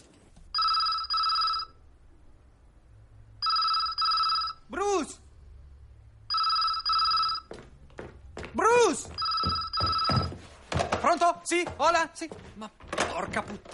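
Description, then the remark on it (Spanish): A telephone in a house rings in repeated double bursts of a bright, trilling bell, four rings in all, as a caller redials and a man runs to answer it, with thumps and rustling between the rings and a man's voice joining toward the end. “El teléfono lleva sonando media hora.”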